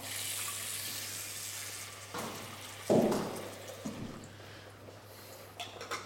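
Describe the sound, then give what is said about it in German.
Water runs steadily from a kitchen tap, splashing as a small pot is filled for a water bath to melt chocolate couverture, with a few brief clunks and knocks of cookware, under a low electrical hum. “Da mache ich hier mal unser Töpfchen fertig fürs Wasserbad.”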